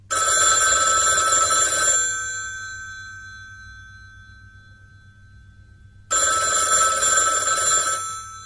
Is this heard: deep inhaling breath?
no